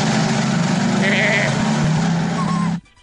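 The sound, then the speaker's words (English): A loud, wavering bleat from a billy goat holds for almost three seconds, a strained nasal cry, then cuts off abruptly into near silence. “Some of the animals going in. Oh, no! There goes the Billy goat.”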